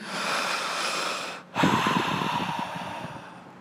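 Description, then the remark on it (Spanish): A voice imitates a dying person's loud last breath: two long, forceful, raspy breaths separated by a brief pause, with the second turning rough and strained as it fades. “Y se fue quedando, y se fue quedando hasta su último suspiro, fuerte, así.”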